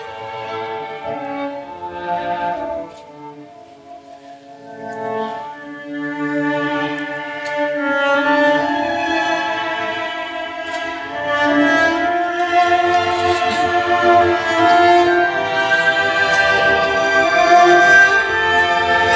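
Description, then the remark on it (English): The Pittsburgh Symphony Orchestra plays Eli Eli, the Hanna Senesh poem set to music by Israeli composer David Zahavi: a slow, sustained passage of layered strings and winds, starting softly and swelling fuller and louder toward the end, with no one speaking. “you heard the Pittsburgh Symphony Orchestra playing Eli Eli, the poem by the Hungarian martyr Hanna Senesh, set to music by the Israeli composer David Zahavi.”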